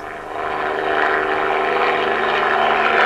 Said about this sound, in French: Deux hélicoptères décollent, un bel, une alouette.